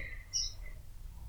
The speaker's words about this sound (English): if you can hear those birds in the background, I'm so sorry. also, they're cute little birds, so also I'm not really sorry.